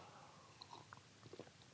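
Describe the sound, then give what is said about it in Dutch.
Quiet drinking sounds: a few soft mouth clicks and small gulping swallows as someone takes a quick sip of water. No one speaks. “Lekker, ik neem even een slokje water.”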